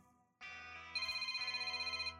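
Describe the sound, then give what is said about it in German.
A telephone rings with a bright, electronic tone, joined after a moment by a rapid pulsing trill that repeats steadily. It is fairly loud, and no one is speaking. “Oh, mein Telefon. Augenblick bitte.”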